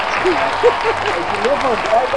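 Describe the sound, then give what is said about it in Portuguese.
A steady burst of applause, many hands clapping in a dense continuous wash, with a few voices rising and calling out underneath throughout. “Aplausos!”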